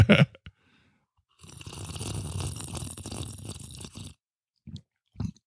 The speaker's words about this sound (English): We're getting better at it getting better at sipping the fizzy drink like bong water.